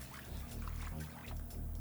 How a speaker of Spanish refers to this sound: Saltó sin temor junto con la mayor confianza que había jamás tenido el agua levanta una leve salpicadura a causa del cuerpo de Rodolfo.